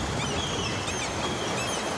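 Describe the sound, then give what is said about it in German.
Shrill seabird calls ring out at night over a steady rush of dark, churning waves, the high cries repeating in short overlapping bursts above the constant wash of water. “Die schrillen Rufe von Seevögeln zerschneiden die Nacht.”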